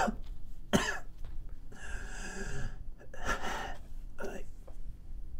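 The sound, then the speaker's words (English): A person coughs several times in harsh, irregular bursts, fairly loud, with a strained, wheezy gasp drawn in between the coughs. “it's nothing for for a good good good long very long and quiet 30 seconds and you hear”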